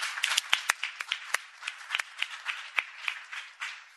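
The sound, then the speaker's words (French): An audience applauds steadily, many hands clapping in a dense, crackling wash with sharper individual claps popping out, moderately loud and continuous for a few seconds with no talking. “Donc, encore un grand merci et je crois qu'elle mérite vos applaudissements parce que c'est grâce à elle.”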